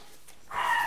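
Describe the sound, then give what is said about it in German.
A dog in a kennel house lets out a short, high-pitched whine after a moment of near silence, the sound rising suddenly and holding briefly at moderate loudness, with no talking. “Dann gehen wir zu den Hunden.”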